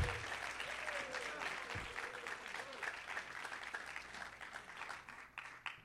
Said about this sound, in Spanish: Dale un aplauso fuerte al Espíritu Santo de Dios. ¡Woo!